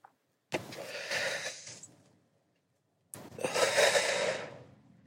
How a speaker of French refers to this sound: Cette respiration que je fais depuis 20 ans, qui est d'aspirer, de bloquer ma respiration et d'expirer. Je fais ça uniquement quand je fume.